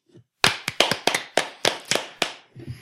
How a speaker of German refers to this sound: Applaus. Applaus.